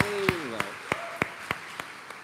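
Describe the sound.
A short burst of audience clapping for a new sound technician being tested: about seven sharp, evenly spaced claps in a steady rhythm that gradually fade, with a brief voice-like tone sounding under the first few.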